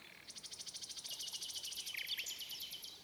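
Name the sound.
nightingale singing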